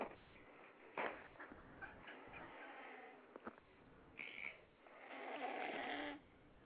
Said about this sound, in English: Well, right now he's sleeping, and I'm listening to him snoring. Oh, really? Can you can you, can you put the phone closer to his, uh, his mouth so we can hear him?